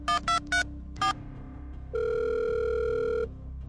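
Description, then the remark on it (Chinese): Four quick electronic keypad beeps as a mobile phone dials a hotel front desk, then a steady, buzzing ringback tone that holds for about a second and a half before cutting off, over a low background hum. “搜到那家宾馆的前台电话，打了过去。”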